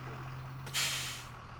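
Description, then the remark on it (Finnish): On a partly cloudy afternoon in Lauttasaari, Helsinki, a bus idles with a steady low engine hum as a passenger catches it, then a sharp burst of air-brake hiss cuts in and slowly fades. No one speaks. “nappaa bussin Helsingin Lauttasaaressa ja etsii mahdollisimman metsäisen kohdan.”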